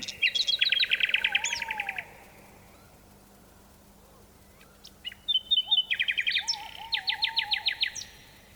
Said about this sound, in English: We leave you this week with a bird noted for its beautiful singing, the nightingale. This nightingale song echoes across a deep valley in Dorset, England, and a tawny owl joins in.